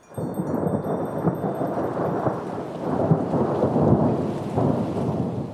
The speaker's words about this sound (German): Gerade noch rechtzeitig, bevor das Gewitter so richtig losgeht.